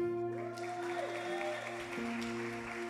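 An audience claps steadily for a few seconds, a dense patter of hands blended with sustained keyboard chords holding underneath, with no one speaking.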